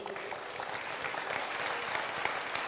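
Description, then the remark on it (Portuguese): A church audience claps steadily to applaud the Lord, dense overlapping applause at a moderate level, with a faint murmur of voices mixed in. “Vamos aplaudir o Senhor que tem irmãos agora que estão celebrando com a gente.”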